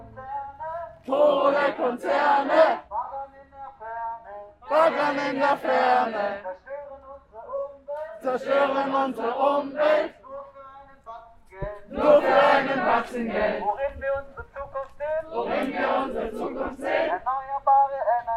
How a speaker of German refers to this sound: Wie ihr den Stimmen hier hinter mir entnehmen könnt, wird das heute keine normale Podcast-Folge. Was ihr hier gerade hört, ist der Beginn der Demonstration von Fridays for Future im Herosee Park in Konstanz am Bodensee.